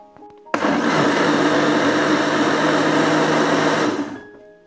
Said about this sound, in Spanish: Cuando ya le hayamos añadido el agua, vamos a poner la licuadora o la trituradora a funcionar.